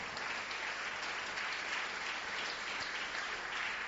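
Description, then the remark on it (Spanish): A church audience applauds loudly in praise of God during a Spanish-language sermon, a dense, steady wash of many hands clapping that fills the whole moment without pause, with no voices standing out above it. “Fuertes aplausos para nuestro Señor.”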